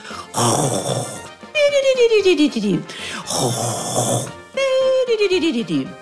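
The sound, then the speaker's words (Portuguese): A voice imitates a sleepy fox snoring loudly: two slow cycles, each a rough, rasping inhale followed by a long, groaning exhale that slides downward in pitch. “Logo, uma raposa sonolenta se aninhou junto de todos e dormiu roncando bem alto.”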